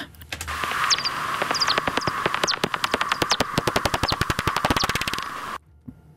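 Rapid dry clicks from bats, as heard through a bat detector, speeding up into a dense rattling buzz over a steady hum with a few faint chirps, then cutting off abruptly.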